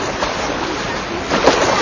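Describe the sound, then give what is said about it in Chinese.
Ocean waves make a steady, hissing wash of surf that swells slightly louder toward the end. No voices are present. “你只能听到那个海浪声，那个心情很开朗，那个小孩子。”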